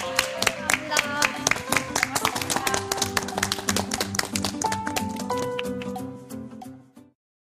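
An audience applauds steadily for about seven seconds, a dense crackle of many hands with a sustained tone underneath, before the clapping tapers off and stops.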